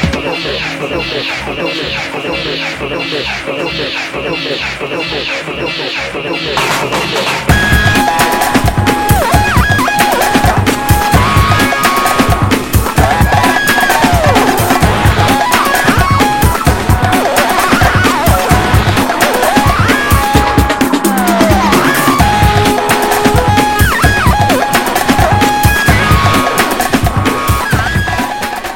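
A 1997 big beat track opens with a looping, buzzy sample, then a loud sampled drum break, one popular in the mid-90s big beat scene, crashes in, driving a steady pounding rhythm under squealing, sliding synth tones. No voices.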